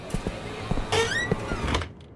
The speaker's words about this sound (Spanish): Llamo a la puerta del despacho de la alcaldía.